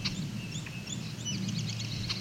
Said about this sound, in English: Song sparrow.